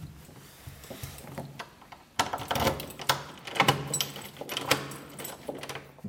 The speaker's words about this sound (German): Ja, ich habe jetzt halt mehrfach den Schlüssel umgedreht, dass wirklich auch der Schließbolzen drinnen ist.